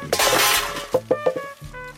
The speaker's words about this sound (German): Sprach Herr Kuckuck und warf das Paddel, den Kartoffelstampfer, den Stopfpilz, das Schuppenwasserfläschchen und den Bleistift zu Boden.